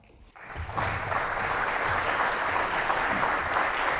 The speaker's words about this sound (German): herzlichen Applaus, eine wunderbare Begrüßung für Alice Sarraut und Francesco Testano.